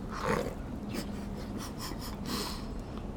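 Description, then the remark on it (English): Noisy eating of a first bite of a sourdough breakfast sandwich with bacon, sausage, cheese, lettuce, sriracha and ketchup: wet chewing, snorting breaths and smacking, deliberately exaggerated in a pig-like way, continuing steadily for a few seconds without speech. “I know I sound like a pig on that one. That was for effect.”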